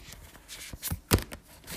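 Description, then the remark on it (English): A deck of affirmation cards being shuffled, a quick run of papery riffles and snaps with a louder burst near the middle, no voices. “All right, let's continue shuffling.”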